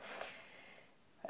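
A faint, breathy sneeze, heard once with a hissy, nasal burst and a short sharp catch of air near the end, no talking.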